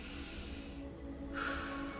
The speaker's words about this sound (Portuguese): Toma mais uma respiração, mais uma, puxe mais uma.